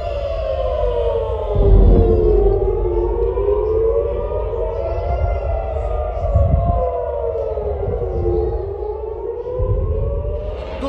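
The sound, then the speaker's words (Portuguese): An air raid civil defense siren in Israel wails steadily, its tone rising and falling in slow sweeps over about eleven seconds, loud and sustained with low rumbling thumps underneath and no one speaking. “A sirene é uma coisa assim muito forte, né? toca na alma.”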